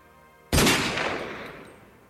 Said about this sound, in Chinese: 在卡萨继续讲下去之前，枪声便在通向这个房间的迷宫走廊中骤然响起。